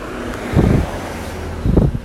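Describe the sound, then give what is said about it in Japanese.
A car passes by outdoors, its low rumble swelling twice in short bursts over steady wind buffeting the microphone; nobody speaks. “すいません、車通ります。”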